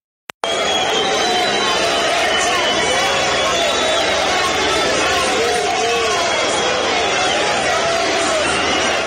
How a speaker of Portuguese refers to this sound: A gente vai botar só, só sente o som assim. O Ganso foi muito parecido com o que o Paulo falou. E o Ganso nem tinha dito nada. O Ganso pegava na bola na Vila Belmiro e levava a vaia.